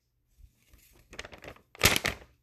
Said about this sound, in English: And so the letter begins. I hope you heard the paper crinkle. I did that on purpose.